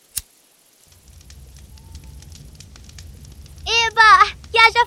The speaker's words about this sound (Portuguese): Deixa que eu acenda esse isqueiro para você não queimar o braço.